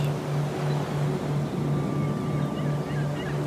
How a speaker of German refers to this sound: Vor uns liegt der endlose Ozean. In einem fein getakteten Rhythmus tosen seine Wellen an das Ufer.